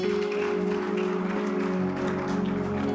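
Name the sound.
audience clapping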